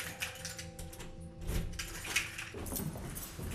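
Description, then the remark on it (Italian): Keys jangle in a few short, bright metallic bursts over a steady low hum in the background. No one speaks. “chiavi le hai prese?”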